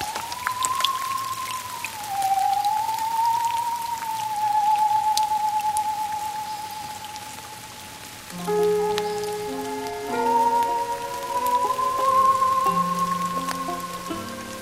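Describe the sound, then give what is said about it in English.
Steady rain patters throughout, with scattered drop hits. A sustained, gently wavering tone rides over it, and about halfway through, layered held musical notes join in. “November's cold chain made of wet boots and rain.”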